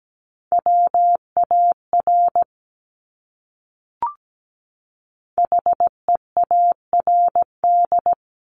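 Clean, steady Morse code beeps at a single mid pitch, keyed at 17 words per minute in quick dots and dashes. Two separate bursts spell out characters, with a short pause and a brief click between them. No one speaks.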